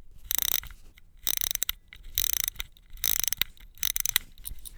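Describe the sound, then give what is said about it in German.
The small silver winding wheel of a battery-free mechanical clock being wound: bursts of rapid, crisp ratcheting clicks in quick repeated strokes, with short pauses between turns. No one speaks. “Man dreht nur an einem kleinen silbernen Rädchen und schon tickt sie los.”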